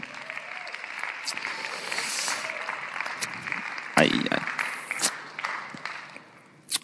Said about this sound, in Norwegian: Så skal vi ta oss i en kjempeapplaus til alle igjen. En, en, applaus til alle som bidrar, selv om vi gjorde det i stad. Kom an, gi, gi dem en applaus.